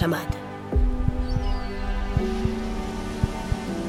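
Low, muffled heartbeat thumps pulse in an uneven rhythm beneath a sustained tonal musical drone, moderately loud throughout.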